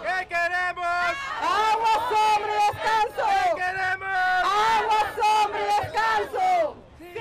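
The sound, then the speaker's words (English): A crowd of workers at a street protest in downtown Miami, calling for water, shade and rest, chants loudly in unison, their voices rising and falling in a steady, rhythmic call that carries on without pause for several seconds. “The vote isn't without controversy, however, as this recent worker protest in downtown Miami calling for water, shade, and rest made clear.”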